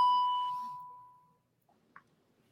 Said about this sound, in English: Well, oh, sorry about that. I, I heard the bell there.